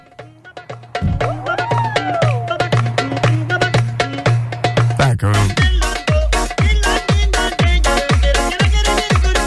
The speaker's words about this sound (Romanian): Ei, și de acolo uh, uh, a început el să facă o un mix din asta, astfel încât a transformat uh, piesa asta într-o piesă de club. Uh-huh. Uh, care sună așa,